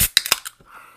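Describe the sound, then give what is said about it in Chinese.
A glass of sparkling water fizzing: a burst of hiss and a few sharp crackling pops, then a quieter, steady fizz that trails on for the rest of the second, with no voices. “各位听众，大家好，你好，你好，你好，让我们去听一听气泡水的声音。”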